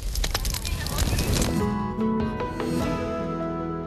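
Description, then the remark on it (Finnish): A campfire crackles outdoors on ice with sharp, irregular pops and snaps, then people start talking as the crackling continues more faintly underneath. “Kuunnelkaa tarkasti, täällä on nuotio.”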